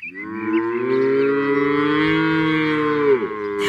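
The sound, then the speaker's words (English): A single long, loud moo from a black-and-white cow with one blue eye, held steady for over three seconds, deep and droning with a slight upward swell, then dropping off at the end. No talking. “All I need is one of these beasts to eat me. Hey, cow!”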